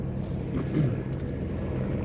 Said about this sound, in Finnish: Tietysti nyt meni yksi helikopteri tuosta ohi.